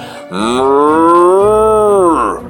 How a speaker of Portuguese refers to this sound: Ele mugia forte. E o capim parecia mais verde. Ele mugia forte. E a brisa parecia mais fresca. Ele mugia mais forte